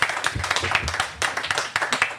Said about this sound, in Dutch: Geef hem een applaus, dames en heren,